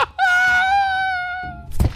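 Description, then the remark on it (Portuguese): A voice imitates a heavy, solid pie falling to the floor: a long, steady, slightly falling vocal tone, then a short, loud, low thud at the end. “A torta cai no chão e ela faz um barulho pesado, assim.”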